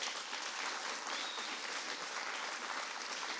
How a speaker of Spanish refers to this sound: Amén. Dale un fuerte aplauso a Cristo, pues.